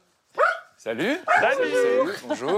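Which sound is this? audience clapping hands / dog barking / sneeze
dog barking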